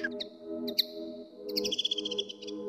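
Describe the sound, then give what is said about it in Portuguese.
A small songbird, brown with a reddish breast and greyish head and no more than 14 cm long, sings a rapid, bright series of high chirps and trills, clear, over a steady low hum in the background. “À semelhança de muitas outras aves canoras, esta canta e encanta, com as suas vocalizações que às vezes parecem intermináveis.”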